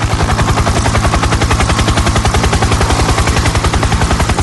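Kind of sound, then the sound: vehicle, helicopter rotor sound effect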